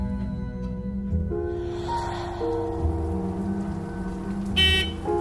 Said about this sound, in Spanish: Los faros y el claxon del autobús trajeron a Araceli de vuelta a la realidad, al presente. Aún seguía lloviendo.